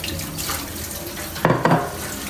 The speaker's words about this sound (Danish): Åh, oh, den her opvask, den stopper bare aldrig. Opvask og tøjvask og generelt oprydning, det er sådan noget.